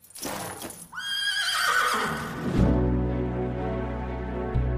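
A horse lets out a loud whinny that rises and then trails off into a lower, rumbling snort, a single drawn-out call lasting several seconds with no talking.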